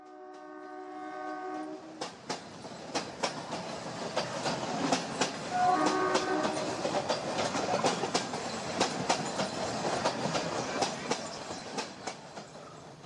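A train horn blares, then a train rolls steadily along the rails with a rhythmic clickety-clack of wheels over joints, loud, and a second brief horn note sounds partway through.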